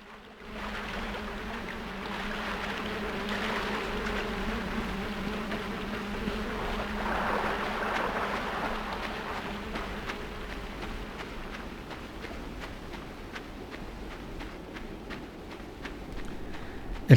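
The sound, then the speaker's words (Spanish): A giant spider moving in a video game: a steady, insect-like buzzing drone over a low hum, joined by rapid faint ticking toward the end, with no voices. “Eso que oyen. Es una araña gigante.”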